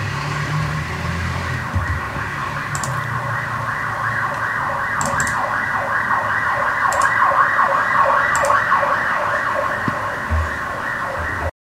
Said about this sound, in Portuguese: Deixa eu passar a ambulância do coronavírus aqui.